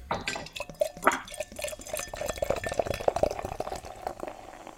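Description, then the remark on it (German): Weizen Doppelbock beer pouring into a glass, a steady gurgling stream with small splashes and bubbly fizz, heard alone without any talking. “Ich hoffe, das klingt von unserer Seite auch so sexy wie von deiner, wie das einschenkt.”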